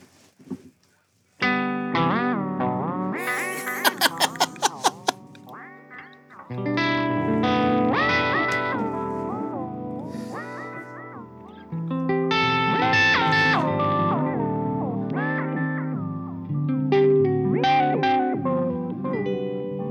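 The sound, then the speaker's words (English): A sustained, harmonically rich electronic instrument plays shifting chords and gliding notes, washed in heavy reverb and effects, loud with a few sharp bright accents, no voices. “guess you could sit with that and a big reverb for an hour easily.”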